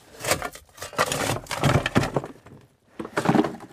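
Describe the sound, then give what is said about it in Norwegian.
Pigs chew rock-hard old potatoes, making loud, irregular crunching and cracking bursts that come in quick clusters with one short pause, and no voices. “Men de går nå og tygger på dem og gnafser på dem.”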